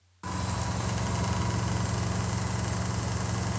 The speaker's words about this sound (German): Das Zumachen einer Mikrowelle. Okay, das heißt, Mikrowelle war schon mal richtig.